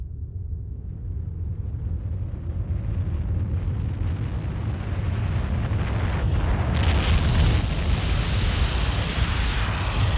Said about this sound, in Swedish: Klockan har nu passerat tio över nio i Mr Davis klassrum är det brummande ljudet nu nästan öronbedövande högt och barnen skriker i vild panik.